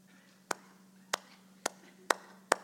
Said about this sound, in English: Golf clap. That's a little golf clap.